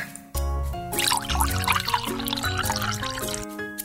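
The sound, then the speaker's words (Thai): Water is quickly dumped out of a container in a steady, clear splashing stream for a few seconds, layered over sustained musical tones that play throughout. “รีบเทน้ำทิ้งก่อนดีกว่า”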